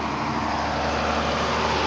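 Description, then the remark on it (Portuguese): A truck rumbles past amid steady traffic, its heavy low engine drone loud, filling the whole stretch with continuous road noise and no talking. “É, Aí, ó, caminhão, nossa.”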